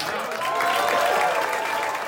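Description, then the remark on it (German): A crowd applauds warmly at a reception for the makers of the film All Quiet on the Western Front at the Villa Aurora artists' residence in Los Angeles, in surprisingly cool weather. The applause is a dense, steady wash of many hands clapping at once, holding at an even, fairly loud level, with a few voices faintly mixed in. “In der Künstlerresidenz Villa Aurora werden die Macher von Im West nichts Neues mit viel Applaus empfangen.”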